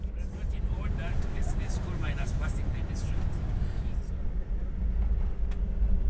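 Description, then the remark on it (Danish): A car engine roars hard and steady as the driver floors the accelerator, its heavy low rumble mixed with bumping and rattling from a rough road in the Karamoja landscape, with muffled voices faintly audible underneath. “Her i dette landskab, hvor chaufføren nu trykker sømmet ekstra i bund”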